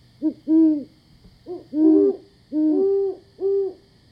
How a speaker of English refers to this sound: Ah, speak of the devil. I believe that's the call of the great horned owl.